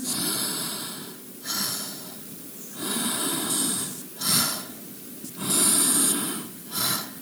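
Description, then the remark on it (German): Long, deep breaths drawn in and pushed out through the mouth as a breathing exercise, fairly loud, in a slow repeating cycle of broad airy rushes with brief pauses between, no talking. “Ich mache es jetzt durch den Mund, ihr macht es durch die Nase.”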